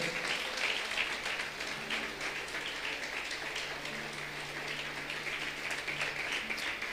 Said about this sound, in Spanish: Dar un aplauso grande.